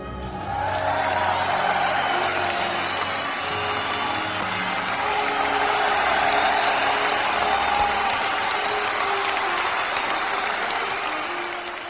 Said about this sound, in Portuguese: É, a salva de palmas.